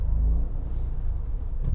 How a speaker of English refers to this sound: sorry, I was looking at traffic,